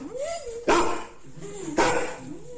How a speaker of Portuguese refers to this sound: Isto são cães confrontados.